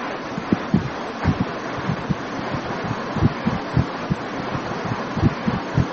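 A car air conditioner blows a steady, airy hiss throughout, with soft low thumps and rumbles scattered through it and no voices.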